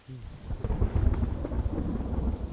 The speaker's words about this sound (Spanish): El aullido de los relámpagos retumbó entre los gigantescos árboles como un grito desgarrador, lo suficientemente agudo como para asimilar un quejido.